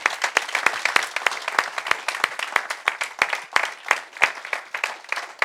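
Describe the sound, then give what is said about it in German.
A church crowd at the Oase Church in Vösendorf claps together in sustained, powerful welcome applause, with dense overlapping claps and a few sharper, louder hand slaps standing out over the steady patter, with no one speaking. “ein herzliches Willkommen, unsere Liebe, unsere Grüße schicken hier aus der Oase Church in Vösendorf und wir wollen jetzt gemeinsam tun mit einem kraftvollen Applaus.”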